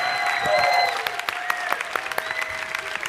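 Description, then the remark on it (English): An audience claps steadily to give the helpers a big hand, dense overlapping hand claps forming a loud, sustained wash with a few sharper claps standing out, plus a faint high whistle-like tone running underneath. “Can you really just clap your hands really big for everybody?”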